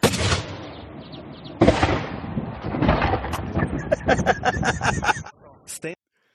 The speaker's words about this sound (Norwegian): Å skyte hval er ikke noe problem. Det er bare å sitte på hvalen, og så gjør man sånn, og så trykker man av.